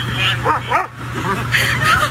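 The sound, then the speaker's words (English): An excited dog named Mila, reunited with its owner after being trapped for hours in a burning apartment, barks and yips, a quick run of short, high-pitched bursts with a whimpering edge, over a steady low hum. “had a happy reunion with her dog Mila after it was trapped in the burning apartment for hours.”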